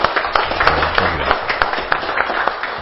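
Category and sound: crowd, round of applause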